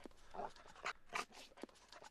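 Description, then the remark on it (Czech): A tracking dog sniffs and pants along a suspect's scent trail, a quick series of short, breathy bursts that sound faint, with no voices. “Pes jde docela najisto, už to nebude daleko.”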